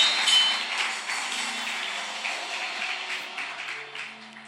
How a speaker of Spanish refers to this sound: Dale un aplauso al rey. Aleluya.